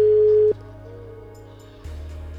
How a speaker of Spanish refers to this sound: Ahora no nos cogen el teléfono.